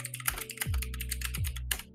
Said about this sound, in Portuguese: Esse, esse, esse teclado é muito alto, não tem como.